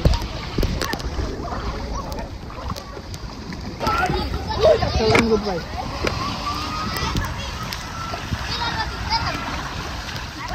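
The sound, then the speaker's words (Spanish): Water splashes and sloshes steadily in the open air on a Sunday, with scattered splashing and faint voices of children and people in the background, as people swim in a river. “La gente viene a nadar al río.”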